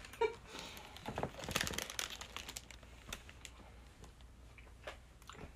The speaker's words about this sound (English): It literally tastes like I'm chewing gum, or it feels like I'm just chewing gum.